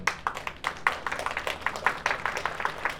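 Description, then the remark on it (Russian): An audience claps together, a dense patter of many hands striking at an irregular, lively pace, moderately loud and steady for the whole stretch with no talking; those who want to do a small practical task are applauding. “Поаплодируйте те, кто сейчас хочет выполнить маленькое практическое задание.”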